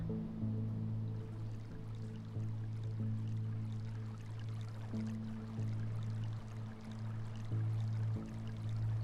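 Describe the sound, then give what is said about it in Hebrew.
Steady, continuous rushing of flowing river water not far off, with a low sustained musical drone humming underneath throughout; no one speaks. “לא רחוק, נשמע רחש המים בנהר.”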